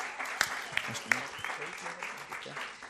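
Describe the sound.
A crowd applauds two members of the leadership team, a steady wash of many hands clapping with a few sharper, louder claps standing out early on, and faint murmuring voices beneath.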